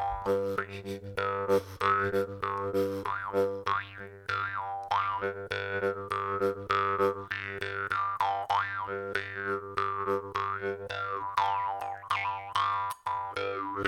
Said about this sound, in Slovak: A opäť budeme najprv pri zubnej drumble a totiž začnem najprv pekne po slovensky, to znamená našou slovenskou drumblou, ktorá pochádza originál zo Slovenska a prikladá sa na zuby. Tu je jej zvuk.